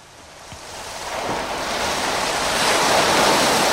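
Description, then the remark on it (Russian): Ocean waves roll in and recede with a broad, hissing roar that builds steadily louder, a continuous surge of sea surf with no voices present. “Итак, шум океанических волн, морских волн.”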